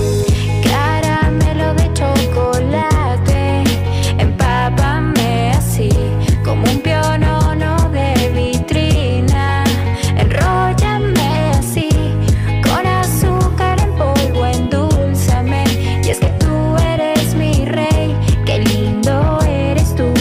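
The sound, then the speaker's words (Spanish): A pop song plays loudly and steadily, with a thumping beat, bass, and melodic sung vocals carrying over a full instrumental mix, with no talking over it. “¿Les parece si la escuchamos completa para que critiquen?”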